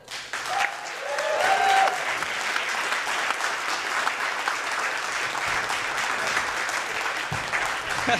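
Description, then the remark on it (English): Sustained audience applause at the Bridgetown comedy show in the Bossa Nova room as comedian Caitlin Gill is introduced and climbs onto the stage: a dense wash of many hands clapping at steady loudness for several seconds, with a few brief whoops or cheers rising early on. “I should have pointed out as well, thank you for continuing the applause.”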